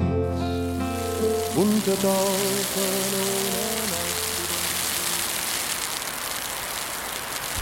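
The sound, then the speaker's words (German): Steady, fine hiss of morning drizzle mixed with thick, wet snowflakes pattering on surfaces, with a low humming tone in the first few seconds that fades away, leaving only the even wash of precipitation. “Eine Mischung aus Nieselregen und dicken, nassen Schneeflocken.”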